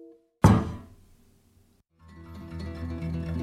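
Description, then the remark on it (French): A woman slams a heavy door shut in the faces of visitors, a single loud thud that rings out briefly. After a short silence, music fades in. “Et elle leur claque la porte au nez.”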